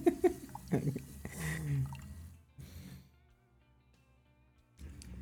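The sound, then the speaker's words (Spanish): Fizzing beer with still-active yeast crackles with busy bubbling and a few wet pops, then settles into a faint steady hiss before a brief louder burst of fizz returns at the end. “Vamos a dejarlos 10 segundos con este ruido.”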